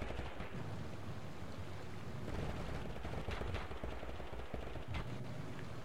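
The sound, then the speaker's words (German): Dense video game gunfire from players fighting a larger battle crackles almost without pause, with several sharp bursts and bangs standing out against a steady, rumbling wash of battle noise. No one speaks. “Und die ballern sich da hinten alle.”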